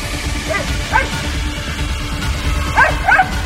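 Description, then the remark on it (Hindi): A dog, Paumi, barks from inside a store room in two pairs of short, yelping barks, somewhat muffled as if behind a wall, over a steady low rumble of background noise. “क्योंकि पौमी की आवाज एक बार फिर स्टोर रूम के अंदर से ही आ रही थी”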